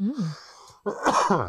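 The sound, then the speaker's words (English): A short hum from a voice, a brief pause, then one loud, harsh cough bursting out and trailing off into a voiced rasp. “As far as that was actually just a cough.”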